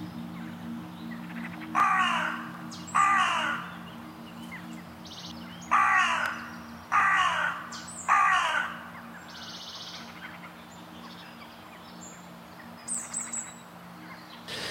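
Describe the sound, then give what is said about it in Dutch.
A hooded crow caws five times, harsh, in two uneven bursts, over a steady low hum with faint chirps from other birds in the background. “Um, maar dus dat is de, de, de zwarte kraai en die bonte kraai.”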